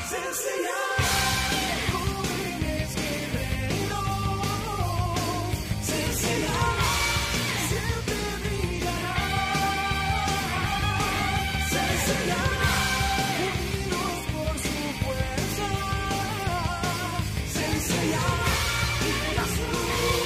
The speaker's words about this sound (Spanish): La canción que estamos escuchando en este momento es el opening en versión latino de este gran anime.